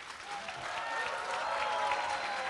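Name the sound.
audience applauding and cheering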